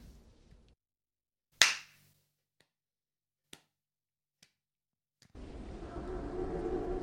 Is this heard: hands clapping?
yes